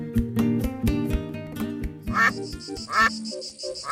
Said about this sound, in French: Eh, qu'est-ce que c'est Les canards Quoi, les canards